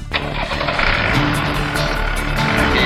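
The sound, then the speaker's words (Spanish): The diesel engine of a Rastrojero pickup truck is started with the ignition key, starting abruptly and settling into a loud, steady, rattling rumble, running continuously for a few seconds with no talking. “Bueno, acá estamos por poner en marcha el rastrojero.”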